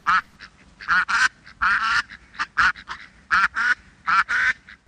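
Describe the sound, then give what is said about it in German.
A person imitates a drake, letting out a run of loud, nasal quacks in uneven bursts of one or two, with short pauses between. “Und wenn es hilft, quaken Sie ruhig ein bisschen.”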